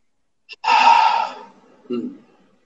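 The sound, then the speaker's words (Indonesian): An audible ujjayi breath made at the base of the throat with the mouth closed: one long, hissing, throaty rush of air that swells and slowly fades over about a second, then a short, lower breathy puff. “Nah, itulah asal suara dari ujai breathing di mana di pangkal tenggorokan.”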